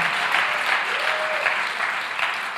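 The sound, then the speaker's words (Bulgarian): A crowd claps for God as an offering of praise, a dense, continuous wash of applause, loud and sustained throughout with no voices standing out and no pauses. “О, ако вярваш в това, защо не дадеш на Бога едно истинско дарение на ръкопляскане?”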